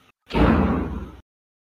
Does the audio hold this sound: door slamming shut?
yes